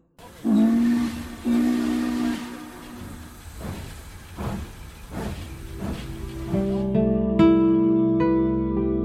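A steam train chuffs along with rhythmic puffs while its shrill whistle sounds in long tones, first near the start and again as the train rumbles on, ending in a layered, sustained whistle blast.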